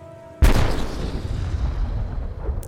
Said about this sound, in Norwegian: gir ordre om å avfyre varselskudd med 76 mm-kanonen som er montert på Pol 3.